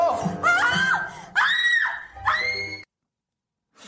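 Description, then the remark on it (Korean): A woman in a TV drama scene screams loudly in about four shrill, wavering bursts that run together, then cuts off abruptly into silence. “왜 비명이 약간 예. 약간 여기서 어 뭔가 아 글쎄요 풋 액팅 발연기의 냄새가 살짝 나는데 다시 한번 들어보도록 다시 한번 들어보도록 하겠습니다.”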